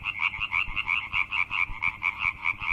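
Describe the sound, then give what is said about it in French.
A tree frog calls in a fast, steady series of loud, rasping pulses, repeating about four times a second, clear with no voices. “Et puis alors, on termine avec la rainette qui est un peu notre cigale à nous. C'est ça, elle a un chant très puissant elle aussi parce qu'elle elle se fait entendre à un kilomètre.”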